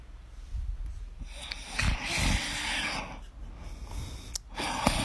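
A man snoring in rough, breathy rumbles with noisy inhale-exhale bursts and a couple of sharper snorts, fairly loud and continuous with no talking.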